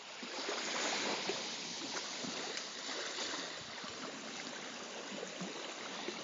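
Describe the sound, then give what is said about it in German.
Shallow water in a lagoon in the Maldives laps and gurgles steadily, a continuous wash of small splashes with no voices, as the lagoon slowly fills with the incoming tide. “Langsam schwappt die Lagune immer voller, weil wir haben einsetzende Flut.”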